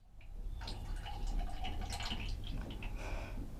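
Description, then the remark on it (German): A steady stream of urine pours into a plastic cup on a toilet, a continuous splashing trickle with a slightly rising pitch as it fills, with no voices. “Ich bin auf dem Klo und pinkel in einen Plastikbecher.”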